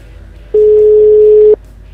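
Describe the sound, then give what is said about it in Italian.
A single steady telephone ringback tone, heard while placing a call to a mobile phone, sounds for about one second, a clear, loud, pure hum, with quiet background before and after and no one speaking. “Vediamo se risponde”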